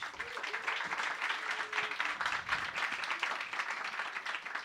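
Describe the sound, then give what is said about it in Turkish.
An audience applauds steadily for several seconds to welcome the evening's first guest on a show, a dense, even wash of many hands clapping at a fairly loud level, with a faint hum and scattered voices beneath. “Bir alkış alalım”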